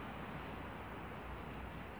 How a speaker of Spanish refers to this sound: Este es el sonido de la calle afuera de mi casa. ¿No notan algo extraño?